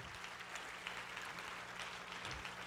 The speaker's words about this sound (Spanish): Si ese es el aplauso, dáselo fuerte a tu padre.